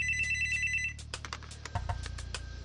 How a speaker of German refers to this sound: Eine halbe Stunde lang schlage ich die Zeit tot. Endlich klingelt das Telefon.